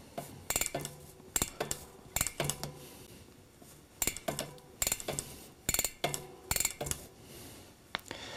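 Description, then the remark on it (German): A bicycle cassette clicks as it is turned slightly backwards while a cloth is pushed into the gaps between its sprockets to clean it, giving bursts of quick metallic ticking in irregular clusters with short pauses between, no voices present. “Dann könnt ihr zusätzlich noch die Kassette säubern, indem ihr einfach den Lappen zwischen die Räume, Zwischenräume steckt und leicht zurückdreht.”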